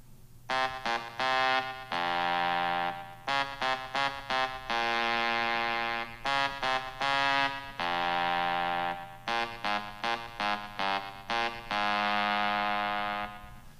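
A rock anthem melody tapped out on a phone as a run of bright, buzzy synthetic tones, short notes in quick groups alternating with long held ones, loud and without any voices.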